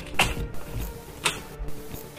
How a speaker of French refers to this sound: Le monsieur se releva délicatement et se dirigea vers la vieille porte d'entrée en bois. Il ouvrit